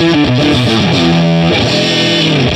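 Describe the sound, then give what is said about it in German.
A short, loud, heavily distorted musical jingle introducing an event tips (Veranstaltungstipps) segment, with bright stepping synth tones in a quick melodic pattern, ending in a sliding chord before cutting off abruptly; no voices. “sobald er Pause macht, drückst du mal den Veranstaltungstipp rein.”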